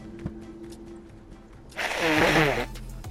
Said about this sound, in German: Also Leute, ich bin ein bisschen eckig und habe ein bisschen Halsschmerzen. Also darum habe ich in den letzten Tagen keine Folgen hochgeladen. Also bitte nicht haten, wenn ich hier meine Nase putzen muss. Manchmal.